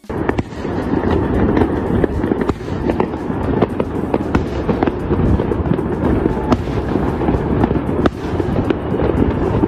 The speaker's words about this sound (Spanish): Lo que dijeron es que no iba a haber fuegos artificiales y me llegaron muchos videos donde hay fuegos artificiales. Miren la prueba fehaciente que tenemos de que esto ocurrió.